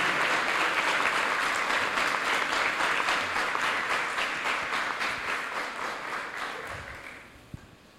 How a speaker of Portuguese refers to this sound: Eu quero que você fique de pé nessa manhã e receba com uma salva de palmas